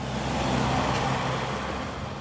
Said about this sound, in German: Etwa genauso viele Autos mit dem einen und dem anderen Kennzeichen rauschen über die breite Durchgangsstraße.